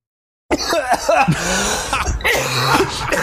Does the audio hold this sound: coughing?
yes